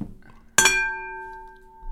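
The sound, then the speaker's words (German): A single bright clink from a bowl used for drawing lots, struck like a gong, ringing on with steady high tones that slowly fade over about a second and a half. “Wir sind nicht bei der Tagesschau, das war einfach nur unsere Auslosungsschüssel. Das war unser Gong.”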